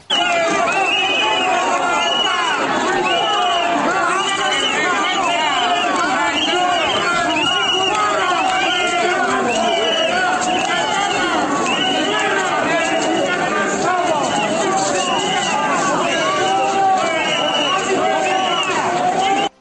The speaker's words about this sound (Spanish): Y ahora vamos a escuchar cómo la gente reacciona cuando llegaba el ministro Marlasca a, Valladolid a, a, llevar a cabo un acto, un acto público. Así le escucha, así le recibían.